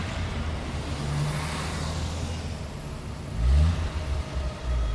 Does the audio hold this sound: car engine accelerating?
yes